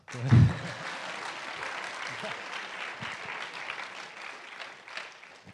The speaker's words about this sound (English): You can clap.